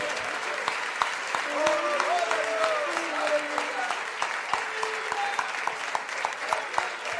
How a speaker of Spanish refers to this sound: Demos un fuerte batir de palmas al Señor.